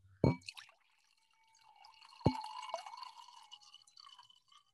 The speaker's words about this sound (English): I'm at the end of my bottle. Let's wait. Pour at the same time. Ready? Oh, you're at the end end. Like you have. I'm at the end end. I, I really got drips.